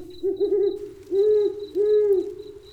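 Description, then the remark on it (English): An owl hoots three times in a steady sequence, each call a low, mellow, slightly wavering note, clear against a quiet background with a faint high insect-like tone. “when the cries of the owl pierces my deepest dreams.”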